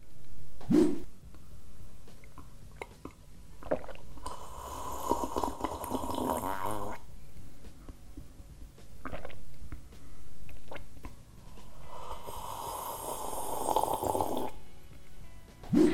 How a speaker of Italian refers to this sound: Per questo suono non esiste davvero un verbo in italiano, diciamo semplicemente bere rumorosamente. E vi ricordo che nella cultura italiana eh, a tavola bere o mangiare rumorosamente è considerato come qualcosa di poco elegante, maleducato.